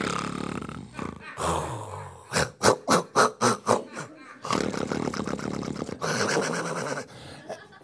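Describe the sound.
A voice loudly imitates a man's snoring: harsh, rasping snorts, then a quick run of about seven rhythmic rattling pulses, followed by longer growling snore sounds, without words.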